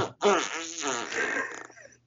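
A voice imitates a long, sputtering fart: one loud, drawn-out, buzzy blast that wavers in pitch for about two seconds before trailing off.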